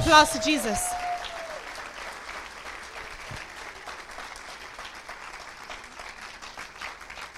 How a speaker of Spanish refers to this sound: Si usted lo cree, denle un aplauso fuerte a Jesús.